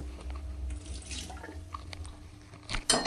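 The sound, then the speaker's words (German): Tap water runs steadily into a cooking pot, a continuous splashing rush with small clinks, ending in a brief louder burst near the close; the pot is being filled to put water on to boil for cooking. “Zuerst setzen wir das Wasser auf.”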